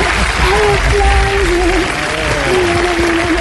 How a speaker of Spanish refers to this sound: Aplausos.